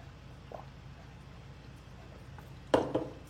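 Someone drinking water, with a low hum: near the end comes a short gulp followed by a soft knock, with no talking.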